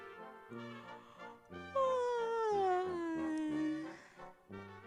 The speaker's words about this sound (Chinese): 今天早上，小兔子卡洛斯刚刚睡醒觉，它呀就打了一个哈欠，